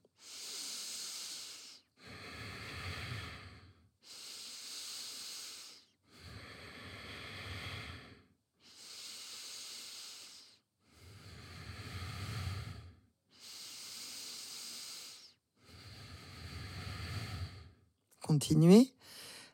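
Slow, steady bhastrika (bellows breath) yoga breathing exercise through the nose: about nine forceful breaths of roughly two seconds each, alternating airy hissing inhales with deeper rushing exhales, fairly loud, no talking.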